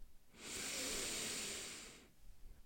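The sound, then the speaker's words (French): A single long, deep inhale, a steady airy rush lasting about a second and a half with no talking over it, taken as a big breath to release tension during a guided relaxation. “À présent, je vous invite à prendre une grande respiration afin d'évacuer vos tensions. Inspirez”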